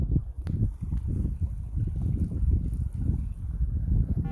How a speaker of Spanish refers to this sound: ¿Oyes el agua? El agüita ahí corriendo de las acequias para regar los campos.